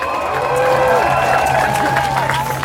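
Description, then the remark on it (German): A large crowd at a Fridays for Future demonstration in Berlin cheers and whoops loudly and steadily as Luisa Neubauer steps to the microphone, with scattered clapping and high-pitched shouts rising over a dense roar of many voices. “Die Menge jubelt, als eine junge Frau ans Mikro tritt.”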